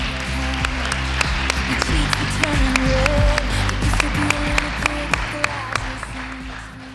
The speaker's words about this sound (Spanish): Así que un aplauso. Aplauso para ella.